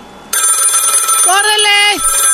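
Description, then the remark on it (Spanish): A loud, continuous bell of an old-fashioned crank telephone starts abruptly and rings steadily with a harsh metallic clatter, while a voice briefly cries out over it partway through. “Pues resulta, señores, que yo dije, ¿cómo sonaban los teléfonos antes? Así sonaban.”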